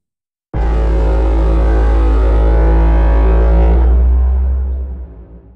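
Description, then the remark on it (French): A boat sound processed as a master treatment, its bass frequencies held in and distortion and reverb added: a loud, deep booming drone that starts abruptly, holds steady for several seconds, then thins out and fades, with no voices. “Je contiens notamment les basses fréquences, et je rajoute de la disto et de la réverbe, qui sont des traitements indispensables”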